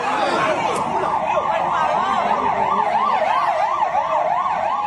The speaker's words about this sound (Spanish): Y segundo después se oye la sirena de un patrullero.